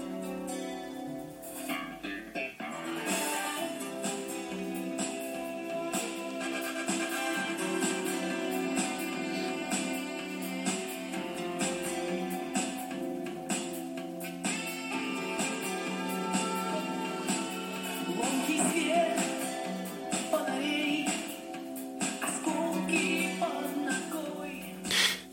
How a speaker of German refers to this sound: Ja, das, was ihr hier hört, ist nicht äh, meine übersteuerte Aufnahme, sondern so klingen die Schallplatten tatsächlich dann auch.